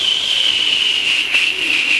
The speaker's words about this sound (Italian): Non è uno shuttle, è il famigerato fischio del portapacchi.